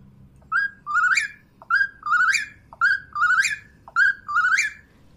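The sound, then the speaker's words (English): A human voice imitates an Eastern Whip-poor-will, whistling the rising three-part call four times in a steady, quick rhythm. The calls are clear over a low background rumble. “Um, the other one she was apparently quite adept at um, is the Eastern Whippoorwill, and that one's a lot harder.”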